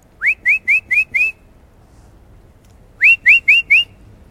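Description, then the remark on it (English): A person whistles to call their female dog: five quick rising whistle notes in a steady rhythm, a pause, then four more, loud and clear with no talking. “let me call my dog.”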